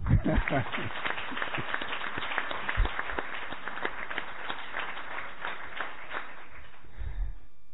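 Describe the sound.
A crowd applauds a choir steadily, many hands clapping in a dense, sustained patter that stays fairly even for several seconds before thinning slightly at the end, with some voices mixed in.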